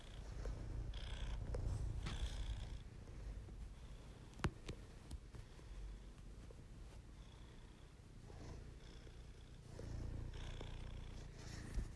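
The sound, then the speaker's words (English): A female cat purrs steadily right beside someone while kneading, a low continuous rumble with soft rustling and a few sharp clicks scattered through, like paws kneading fabric. “I don't know if you can hear my cat, she's like making muffins next to me.”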